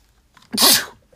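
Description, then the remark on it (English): One sharp, forceful sneeze from a fit of sneezing, a quick intake followed by a loud explosive burst that fades within half a second, with quiet on either side. “I had a fit of sneezing.”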